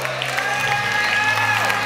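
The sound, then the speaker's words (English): A church audience claps hands together during a worship service in a dense, continuous wash of applause, steady and fairly loud throughout, with sustained musical tones and crowd voices underneath. “30 more seconds, clap your hands, let the river flow out of you”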